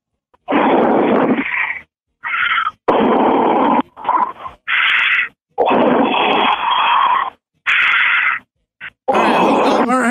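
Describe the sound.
A person imitates a cat's purr as an entry in a contest for the sexiest cat purr, with loud, raspy growling bursts, about seven of them separated by brief pauses, sounding more like heavy grunting breaths than a real purr.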